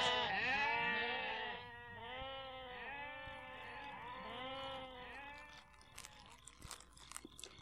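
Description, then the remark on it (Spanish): Forty sheep in a fold bleat loudly and continuously, their wavering cries overlapping one after another, then fade toward the end, leaving soft crunching sounds of animals chewing or shifting on straw. “Bueno, resulta que en el aprisco aquel donde dormían las cuarenta ovejas de David, también guardaban sus rebaños otros dos pastores.”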